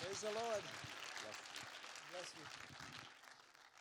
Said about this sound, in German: Und lasst uns sie nochmal mit einem ganz herzlichen Applaus willkommen heißen. Very welcome. Great to have you with us.